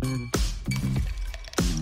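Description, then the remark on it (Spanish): The first ice cubes drop into a glass for a Brancamenta and tonic drink in a few sharp, ringing clinks, spaced unevenly over about two seconds, fairly loud over a soft steady background hum. “Esa hora en la que tirás los primeros hielos.”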